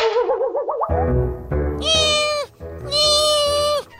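A cat meows loudly: a short wavering cry, then two long, drawn-out meows with a brief gap between them and no talking.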